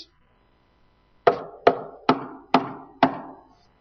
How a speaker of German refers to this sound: Er klopft an die Tür.